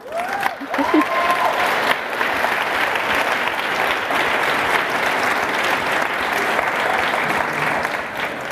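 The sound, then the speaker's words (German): An audience applauds an author's bestseller success, clapping steadily for several seconds, a dense, even patter of many hands with a faint cheer or two near the start, sustained at a fairly loud level throughout. “Ich finde, es ist ein Applaus wert.”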